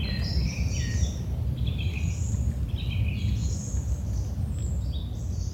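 Birdsong chirps and twitters continuously over a steady low rumble, heard in the background of a guided nature meditation, with several birds trilling in short, high-pitched phrases that overlap throughout, moderately loud with no talking.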